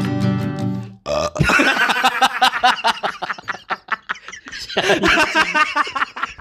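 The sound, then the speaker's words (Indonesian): A long, loud, low-pitched burp rumbles for about a second, then several people burst into excited laughter and chatter. “itu kan angin”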